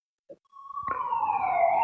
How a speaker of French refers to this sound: Alors il y a évidemment il y a la sirène